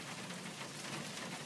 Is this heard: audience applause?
no